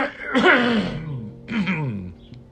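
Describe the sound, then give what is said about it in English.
Two rough throat-clearing coughs from a hoarse-voiced person, each a harsh burst that trails into a gravelly voiced rasp, separated by a short pause, with no speech. “Let's see if I can clear this up.”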